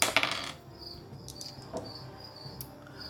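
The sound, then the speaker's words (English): A quick burst of dice, a d10 and a d8 being rerolled, clattering and rattling across a hard table for about half a second, then settling into quiet with a few faint ticks. No one speaks. “Yeah, gotta reroll those d10, d8.”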